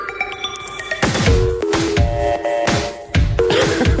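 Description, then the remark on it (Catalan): Telephone keypad tones beep in a quick series of steady pitches, then a loud song with heavy drum beats comes in, and the dialing tones keep sounding over the music. “Jugant amb els sons de, del teclat, vaja.”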